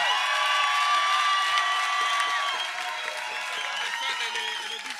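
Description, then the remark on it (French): A loud crowd applauds and cheers for several seconds for the musicians and engineers of a music project, with clapping, shouts and whoops blending into a dense, steady roar that eases only slightly toward the end. “Faites du bruit pour eux, s'il vous plaît. Faites du bruit.”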